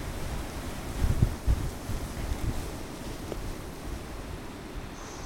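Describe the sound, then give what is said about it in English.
Strong wind buffets the microphone with a steady low rumble, swelling into louder thumping gusts around the first second before settling back to a constant roar. No one speaks. “Oh, quite windy.”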